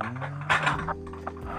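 Plates clink and knock together while being washed, a few bright clatters over a low steady hum, with a louder burst of rattling near the middle.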